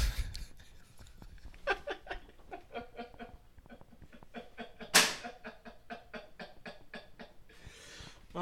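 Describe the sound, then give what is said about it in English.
Amid soft laughter and breathy chuckling, a single sharp clatter rings out midway as a cat knocks an object off a table and it strikes the floor. “My cat knocked something off the table.”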